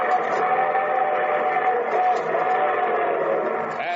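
A loud, sustained train whistle blows steadily for several seconds at the opening of the Railroad Hour radio show, its chord-like tone holding strong as the train approaches, with no voices over it.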